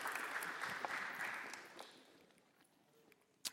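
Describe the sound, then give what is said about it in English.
A crowd claps steadily for the event's sound guy, a dense patter of many hands that stays strong for a couple of seconds and then thins out, leaving a few scattered claps near the end. “Everyone give it up”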